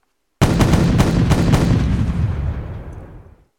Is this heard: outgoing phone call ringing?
no